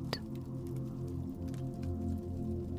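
A crackling fire with scattered snaps and pops over a steady low, humming rumble, fairly quiet and continuous, with no voices.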